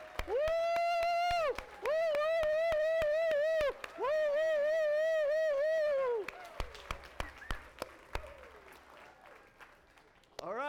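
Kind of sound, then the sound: crowd, standing ovation applause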